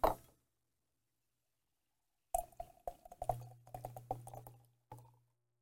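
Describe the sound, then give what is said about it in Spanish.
Beer is poured from a can at Guernético Estudios in Guaynabo, a quick burst at the start followed by a pause, then a run of gurgling glugs and splashes for a few seconds, with no talking. “está en el formato de lata y los, eh, los recaudos de esta cerveza”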